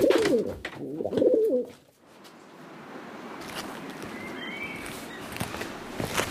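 A pigeon coos in two warbling, throaty bursts, then falls silent, leaving a quieter outdoor background with faint rustles and noise.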